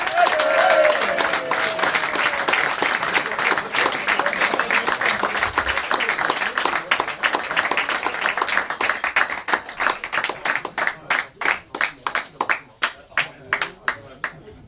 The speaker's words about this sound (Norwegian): Men eh, ta godt imot stor applaus